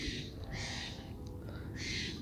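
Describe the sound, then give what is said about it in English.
Three harsh crow caws ring out at uneven intervals in the morning over a steady low rumble of background noise. “Even the Crows are pissed off at everyone bitching about the refs.”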